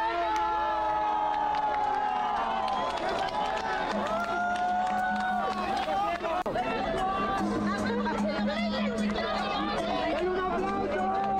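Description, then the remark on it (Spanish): A crowd cheers and shouts excitedly as the winner is announced after a countdown, with overlapping voices rising and falling in a loud, continuous roar of celebration. No single voice stands out from the dense, sustained noise. “un aplauso!”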